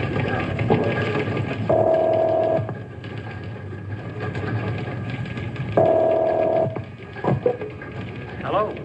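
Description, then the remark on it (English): A telephone call being placed: a few faint clicks, then two long buzzing ring tones a few seconds apart, heard through the receiver over a hissy background. “I'd better call him on the phone.”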